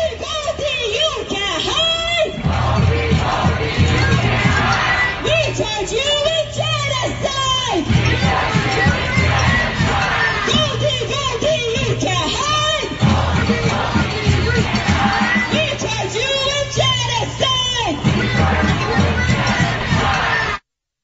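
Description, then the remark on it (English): A large crowd of protesters outside a Jewish-owned restaurant in Philadelphia chants loudly in unison, shouted phrases repeating in a steady rhythmic cycle with a low thumping beat underneath, continuous throughout. “This is recently uh, a group of protesters outside of a Jewish owned restaurant in Philly. Wanted you to hear what this chant was.”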